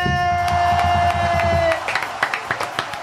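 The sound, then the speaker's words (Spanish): An audience applauds at the start of the show Uno Nunca Sabe: a dense wash of clapping and crowd noise under a sustained musical tone, which stops partway through and leaves thinner, scattered claps. “El aplauso es, el aplauso es hermoso.”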